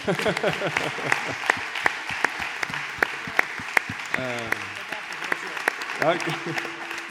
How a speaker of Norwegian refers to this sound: Jeg synes De fortjener en applaus. De er mange her i dag.